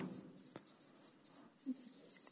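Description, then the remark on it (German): Scratching of a pen or marker as someone writes the word "Wissen" by hand on a surface, a steady run of short scraping strokes with brief pauses, alone and fairly quiet. “Und deswegen schreibe ich hier mal auf Wissen”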